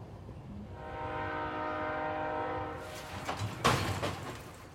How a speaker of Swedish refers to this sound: Så snart tåget hade stannat klev familjen Stentroll av.